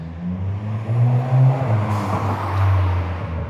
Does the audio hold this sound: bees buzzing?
no